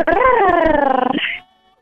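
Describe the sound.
On a count of three, a person imitates a sexy cat purr with a voiced, rolling rumble that pulses rapidly and glides slightly downward. It is loud, lasts just over a second, then stops.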